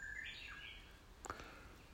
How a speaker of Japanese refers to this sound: なんかこのねウグイスの鳴き声聞くたびに思うんですよねこのうちのおばあちゃんち来て山ん中入って聞くたびにうん